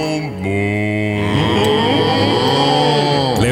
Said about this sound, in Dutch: kwam erachter dat koeien mensen begroeten die de stal inlopen. Dat doen ze door kort en zachtjes te loeien. Ook laten ze merken als ze honger hebben. Dan loeien ze heel erg lang.